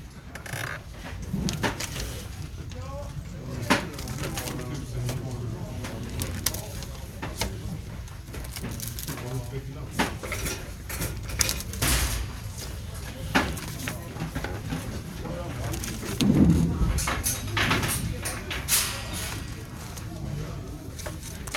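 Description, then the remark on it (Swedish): Steady mechanical hum and rumble of the mail sorting terminal on Södermalm, with scattered clicks, rattles and soft thuds of letters as a worker sorts them, and one louder clattering burst near the end. “Jag står alltså nere i postterminalen på Södermalm och sorterar in brev.”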